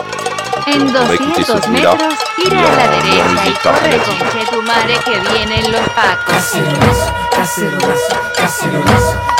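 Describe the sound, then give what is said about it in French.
Many cooking pots clang and ring as they are struck with spoons in a dense, overlapping din of a South American street protest, with faint voices mixed into the loud metallic clatter. “sur lequel elle utilise le son des casseroles des rues sud-américaines.”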